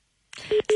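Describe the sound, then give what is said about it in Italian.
A landline phone call cuts out with a short burst of crackly noise, then a busy tone starts: steady mid-pitched beeps, two of them, loud and evenly spaced. “Oh no, è caduta la linea con, eh, con eh,”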